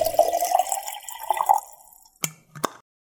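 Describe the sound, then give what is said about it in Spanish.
Water is poured into a mate gourd with freshly renewed yerba, a gurgling stream rising in pitch for about a second and a half, followed by two sharp clicks or taps. No one speaks. “Yerba renovada y agua lista para volver a tomar unos ricos mates”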